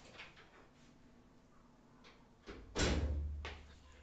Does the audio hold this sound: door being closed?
yes